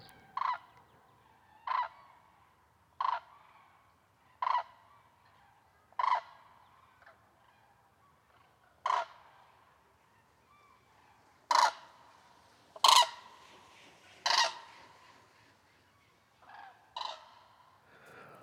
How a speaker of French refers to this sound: Aujourd'hui, à grands coups d'aile, les grues cendrées passent dans le ciel de France.